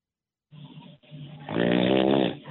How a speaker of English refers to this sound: Don't interrupt his snoring. Wake up! Wake up! Ah! You know what's interesting about this snore?